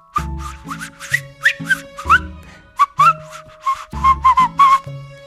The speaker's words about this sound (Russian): … начал насвистывать.